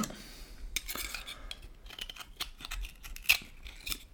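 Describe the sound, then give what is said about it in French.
An oyster shell is pried open with a knife: irregular scraping and sharp clicks of metal on shell, with one louder crack near the end and no voices. “Décaloter le petit pied, porter l'huître à sa bouche et la déglutir.”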